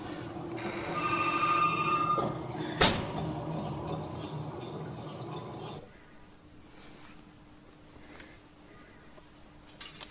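A telephone bell rings in a short burst, bright, then a sharp click follows and the sound falls to a quieter background hum.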